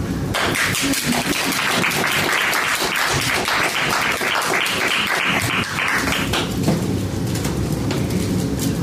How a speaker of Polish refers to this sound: Raz gorąco Państwa witamy i myślę, że teraz te oklaski się przydadzą.